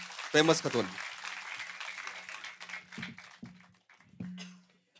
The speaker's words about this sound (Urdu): میں ان سے گزارش کرتا ہوں کہ اپنی شاعری سے نوازیں اور آپ سب لوگ ایک بار تالیوں کی گونج میں ان کا استقبال کر لیں